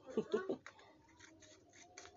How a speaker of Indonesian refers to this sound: nah hampir selesai ini iya, potong gunting dulu